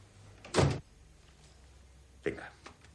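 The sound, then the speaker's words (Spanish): A door is opened fully with a brief, loud clunk to let a police officer in, then after a pause of nearly two seconds comes a softer scraping rustle over faint background hum. “abre la puerta del todo y deja pasar al policía.”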